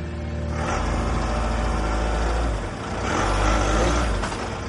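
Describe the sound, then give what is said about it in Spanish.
A taxi engine runs steadily with a low rumble, then revs up and swells louder as the taxi pulls away toward the airport, settling back into a droning hum. “Vuelve a cerrar la puerta y el conductor arranca con dirección al aeropuerto.”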